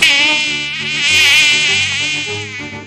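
A loud, continuous mosquito buzz whines steadily for about three seconds, its high pitch wavering slightly, with soft low musical tones sounding underneath.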